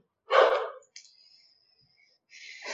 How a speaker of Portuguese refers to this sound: Meu Deus, me desculpa pelos cachorros, gente, de verdade. Ah, é o que tem, os dogs.